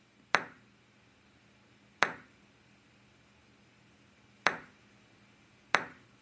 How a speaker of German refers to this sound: Ist das Tischtennis? Ich wollte gerade sagen, das hört sich danach an. Das ist aber super leise. Super Boah. leise, tut mir leid, aber es war Tischtennis.